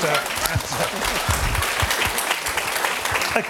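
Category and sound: crowd, audience applause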